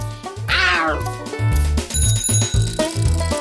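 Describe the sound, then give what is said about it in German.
A single drawn-out tomcat meow rings out near the start, sliding downward in pitch, over bouncy music with a bright bell-like chime and a steady thumping bass beat. “Und wem haben wir das zu verdanken? Dem Kater.”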